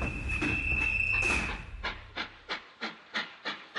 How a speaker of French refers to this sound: Je grimpe et m'installe dans le train qui se met en marche au second coup de sifflet.